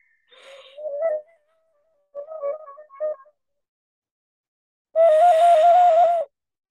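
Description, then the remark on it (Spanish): A conch shell blown like a horn: two short, sputtering attempts, then one loud, steady, reedy blast held for over a second. No voices are heard. “Esto es una caracol, es un caracol que, que, emite un sonido muy bonito.”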